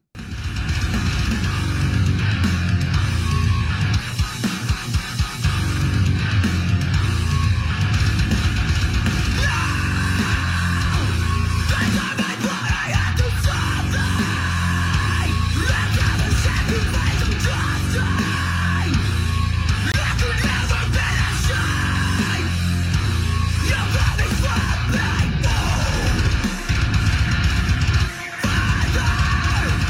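A loud, dense heavy rock song plays throughout, with thick distorted guitars, pounding drums and harsh shouted vocals, broken by a few brief stops before the wall of sound crashes back in.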